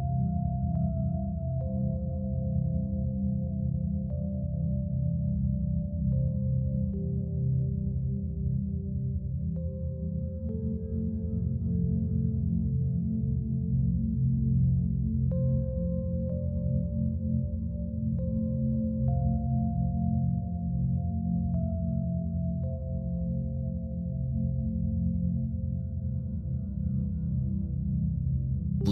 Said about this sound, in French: Vous écoutez des fréquences binaurales.